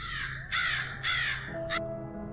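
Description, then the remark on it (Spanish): A raven caws three times in a harsh, raspy rhythm, then gives a short clipped fourth call, loud over a low steady hum. “le dije, ¿no serás un cobarde, hórrido cuervo vetusto y amenazador?”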